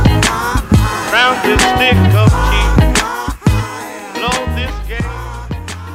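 A rap song plays loud, with a steady punchy beat, deep bass and a rhythmic vocal line running continuously over the music.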